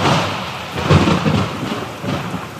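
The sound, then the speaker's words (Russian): Steady rain hisses broadly while a low thunder rumble swells near the start and rolls on beneath it, with a second softer rumble later; no one speaks. “Ой, что-то дождь пошел. Ой, холодно и мокро.”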